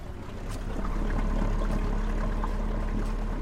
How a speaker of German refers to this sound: steigen in ein Boot. Sie wollen zu den kleinen Inseln Kinaros und Levitha, etwa eine Stunde entfernt von Amorgos.